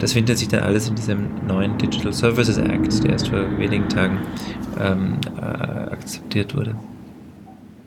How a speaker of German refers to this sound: Jetzt ist gerade bei dir eine Straßenbahn durch das Büro gefahren, so wie sich's angehört hat. Ich glaube, das war ein Flugzeug, das über mich geflogen ist. Ich bin in der Einflugschneise.